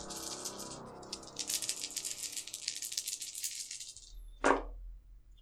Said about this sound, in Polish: To oznacza, że rzucam czterema kośćmi, bo trzema bazowo